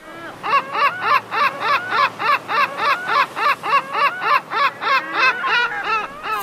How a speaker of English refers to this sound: Ah, you foul-winged demons! Damn gulls! Get your own shark fin soup.